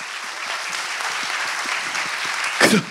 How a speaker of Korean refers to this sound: 박수 한번 세요